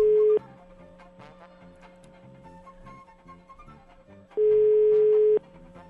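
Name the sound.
telephone ringback tone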